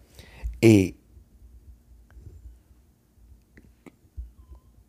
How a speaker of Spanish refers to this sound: está llorando el perrito, si lo escuchan por ahí.